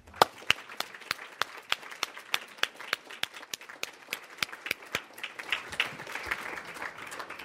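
An audience applauds to thank their parents, with sharp individual claps standing out at a steady, fairly quick rhythm over a softer, continuous patter of many hands. The clapping grows denser toward the end.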